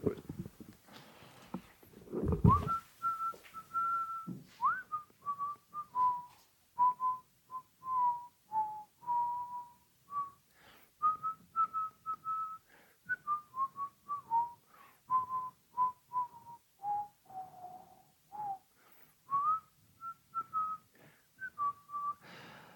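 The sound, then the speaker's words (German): A person whistles a slow, wandering tune for about twenty seconds, to cover the sound of someone using the toilet, sliding between a handful of mid-pitched notes, with choppy voice-like sounds pulsing underneath throughout. “Kannst du Pfeifgeräusche machen für den Hörer und für die Hörerin?”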